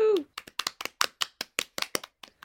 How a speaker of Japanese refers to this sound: 拍手